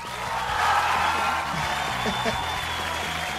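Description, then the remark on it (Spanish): A burst of dense, steady applause from many hands at the opening of the programme Piloto al Aire, holding an even loudness for a few seconds without any clear break or build. “El aplauso.”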